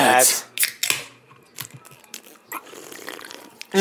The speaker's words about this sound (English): I forgot to crack a beer.